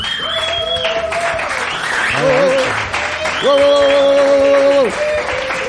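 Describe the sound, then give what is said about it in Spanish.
A crowd packing Blas's bar (el bar de Blas) applauds steadily for several seconds, a dense wash of clapping with raised voices cheering and calling out over it, swelling louder toward the end. “Con su poquito de saber estar y su pizquita de savoir-faire, un público que practica el juego limpio pero que aplaude cuando toca y cuando no también, y que grita si hace falta.”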